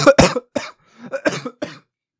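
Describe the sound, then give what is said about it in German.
A series of harsh coughs from someone while recording, in quick bursts, about five or six in a row with short gaps, loud and clear with no talking. “Aufnehmen mit Husten ist so übel, ich sag's euch.”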